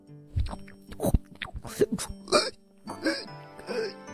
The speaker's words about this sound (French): Tu fais des bruits bizarres quand tu manges.